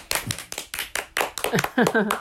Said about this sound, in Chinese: 给你掌声鼓励鼓励。